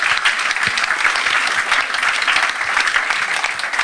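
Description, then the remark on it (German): Steady audience applause fills the whole stretch, a dense wash of many hands clapping at once, loud with no pauses or voices rising above it. “Oder lassen wir mal klatschen, das ist so toll.”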